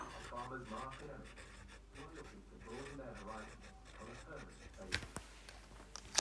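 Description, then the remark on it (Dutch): Pen scratching steadily across paper as something is written down, with muffled voices murmuring underneath, ending in a few sharper taps and scrapes. “Even wachten hoor. Dan moet iets opschrijven ook.”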